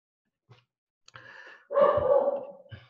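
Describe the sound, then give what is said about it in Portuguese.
A pet dog barks: a couple of short, soft yips build into one louder, drawn-out bark before another brief yelp at the end, with no talking over it. “meu cachorro de novo.”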